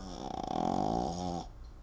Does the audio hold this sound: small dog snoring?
yes